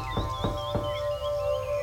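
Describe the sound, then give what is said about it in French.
Three evenly spaced, firm knocks on the door of a house in Hope, followed by quiet with a steady background hum and faint high chirps. “Elle toque à la porte. Aucune réponse. Elle frappe à nouveau.”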